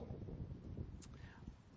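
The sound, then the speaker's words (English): Steady low rumbling wind buffeting a microphone, a constant muffled roar with a brief higher hiss near the middle, no clear talking. “Sorry about our, our wind here.”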